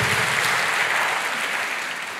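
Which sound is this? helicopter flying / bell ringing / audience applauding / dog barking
audience applauding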